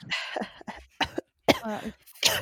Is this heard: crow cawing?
no